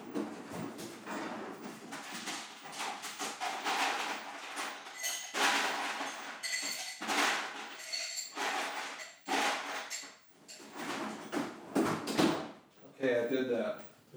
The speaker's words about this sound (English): I don't want to open the freezer for too long because I don't want it to turn on. Screw it. This is about bad decisions. I'm gonna open the freezer, grab some ice, put it in my glass real fast, and then close it again.